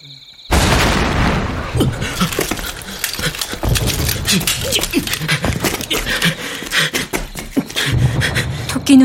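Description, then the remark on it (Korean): A sudden, loud explosive boom from an enemy attack in wartime in September 1951 bursts in after a moment of silence, shaking the ground and striking a tent, followed by sustained rumbling and a dense clatter of cracks and thuds lasting several seconds. “그때 지축이 흔들리고 곧바로 폭발음이 따라와 텐트를 때렸다.”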